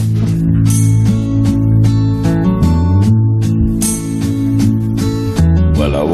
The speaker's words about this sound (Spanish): Mi canción favorita de la resaca por eso se titula … y suena así.